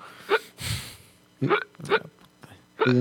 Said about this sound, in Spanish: Está la gente ahí, pobrecita, con hipo y todo.